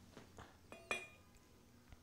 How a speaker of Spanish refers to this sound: Hiciste el chinchín sin querer. Bueno, eso fue la botella.